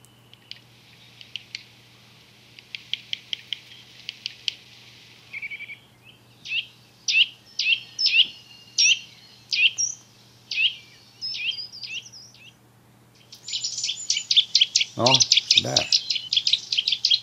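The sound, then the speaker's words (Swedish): Birds that climb up and down tree trunks head-first squabble, not singing, in agitated bursts of sharp, high chirps and rapid trills, clustered in quick volleys that grow denser toward the end, over a faint steady low hum. “Det är inte sång det här? Nej, det är fåglar som kivas.”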